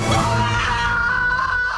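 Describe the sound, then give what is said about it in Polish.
A woman lets out a loud, sustained scream, her strained voice holding a high pitch for nearly two seconds with a rough edge, close and filling the whole moment. “Rachel w tym odcinku siódmym, jak bardzo wiele kobiet, znajduje siebie. I między innymi krzyczy.”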